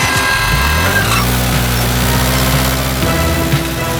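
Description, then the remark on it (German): A moped's small two-stroke engine drones steadily as it moves extremely slowly through a parking garage, its buzzing pitch wavering slightly as it putters along, with a hollow, reverberant quality. “Meine Sensoren orten ein extrem langsames Fahrzeug im Parkhaus.”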